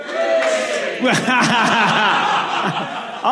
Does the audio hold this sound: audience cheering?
yes